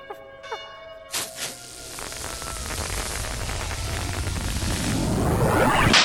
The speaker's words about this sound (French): Et à cet instant précis, les cloches se firent entendre. Tu entends, Capi C'est Noël.